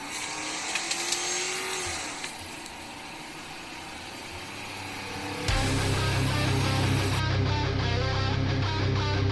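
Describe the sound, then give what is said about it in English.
A Ford Crown Victoria car engine runs with a steady hum, then surges into a louder, deeper rev about halfway through and keeps roaring. Nobody speaks. “Now sit back relax, and enjoy the orgasmic sound of a Crown Vic.”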